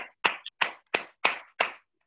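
Hands clap in a steady rhythm, about six crisp, fairly loud claps spaced a third of a second apart, then silence. No one speaks.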